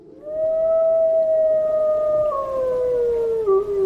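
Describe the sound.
A person lets out one long, loud howl, holding a steady wavering tone for several seconds before the pitch slowly sinks at the end, like an imitation of a wolf.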